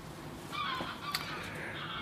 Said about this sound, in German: fliegen die Gänse vorbei. Ich weiß nicht, ob man das hören kann. Fliegen jetzt Richtung Süden.